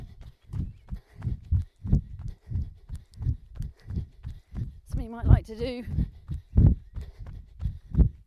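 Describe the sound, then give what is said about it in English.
A runner's quick, steady footfalls thud at a brisk running cadence throughout, fairly loud, as they increase their pace and turn their legs over faster. A man briefly speaks over the pounding rhythm partway through. “Turn my legs over faster hear the difference.”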